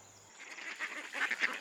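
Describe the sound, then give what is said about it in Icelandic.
A duck quacks in a quick series of raspy calls, growing louder toward the end, with no voices over it. “Svo rúlaði hún lengi, lengi þar til hún hitti önd.”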